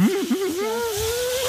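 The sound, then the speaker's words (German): A single voice imitates a car driving past, a sustained, fairly loud humming engine tone that wobbles briefly at first, then glides steadily upward for about a second and a half. “Jetzt tue ich so, als würde ein Auto durchfahren.”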